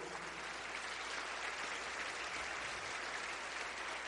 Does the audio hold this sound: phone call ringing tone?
no